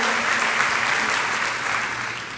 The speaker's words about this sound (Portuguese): Quem está entendendo essa palavra, celebre por ela, dá glória a Deus, dá salva de palmas ao Senhor.